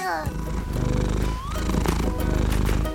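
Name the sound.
cat purring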